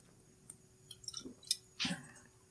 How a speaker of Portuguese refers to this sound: Um golinho de criatividade aqui de vinho.